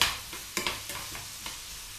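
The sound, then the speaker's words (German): Onions and bacon sizzle steadily in a pan over good heat, broken by several short scraping clacks as they are stirred and spread around to the edges of the pan, fairly quiet, with no one speaking. “Und bei guter Hitze jetzt erstmal kurz anbraten lassen.”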